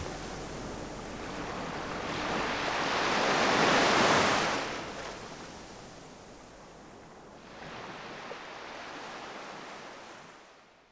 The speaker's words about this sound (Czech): Písek mi drhne mezi prsty, vlny ho umývají a moje myšlenky na nich plavou kam si daleko, kde se spolu s pěnou rozpouští.